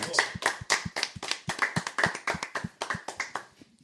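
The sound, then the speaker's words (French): Audience applause: a burst of brisk, sharp hand claps in a quick, fairly steady rhythm, with no one talking, tapering off and fading out at the end. “On peut applaudir Philippe, toujours l'imagination débordante.”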